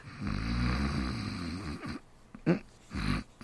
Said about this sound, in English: you promised you wouldn't snore. And the minute you close your eyes, you started.